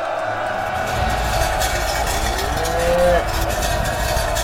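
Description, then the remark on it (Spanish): A cow lets out a long, drawn-out moo from some distance, its low call rising and sliding over a steady wash of background noise with no talking. “Ese es, oigo a lo lejos el mugido de esa maldita vaca.”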